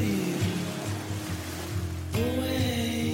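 sea waves

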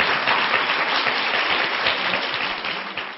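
audience applause

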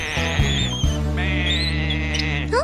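sheep bleating

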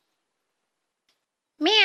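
cat meowing

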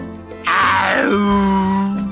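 tiger roar

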